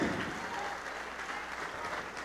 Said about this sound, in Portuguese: Vamos aplaudir mais por cada filho pródigo, por cada filha pródiga que está chegando, vem.